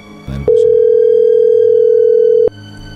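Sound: phone call ringing tone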